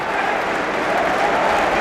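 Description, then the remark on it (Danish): Steady, dense applause from a large football stadium crowd of Finnish and Danish fans clapping Christian Eriksen as he is carried off the pitch, a continuous wash of many hands clapping at a fairly loud, even level with no distinct individual claps standing out. “Imens både de finske og danske fans klapper Eriksen ud fra hjemmebanen”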